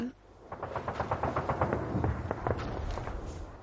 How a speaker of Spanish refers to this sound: De repente se empezaron a oír explosiones muy lejanas y al principio dijeron que los rusos no podían estar tan cerca.